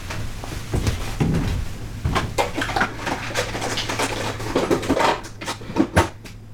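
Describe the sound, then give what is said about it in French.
Someone making themselves a coffee with a coffee maker: irregular clicks, knocks and cup clatter over a steady low mechanical hum, with no one speaking. “Ah, il y a une cafetière ici, j'avais pas vu. Attendez, je vais me faire un café.”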